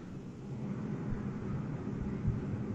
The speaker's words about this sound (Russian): Нет, кстати, это скорее всего у тебя компьютер слышно.